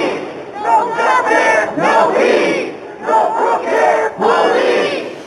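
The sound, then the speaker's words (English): A large protest crowd chants in unison on the steps of the Vancouver Art Gallery in the late afternoon, protesting injustice, loud and rhythmic, with repeated bursts of shouted slogans rising and falling in a steady cadence. “Those are the sounds from the steps of the Vancouver Art Gallery late yesterday afternoon.”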